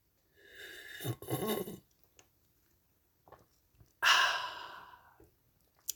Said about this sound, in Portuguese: E vai agora colito d'água e vou beber alto para vocês ouvirem.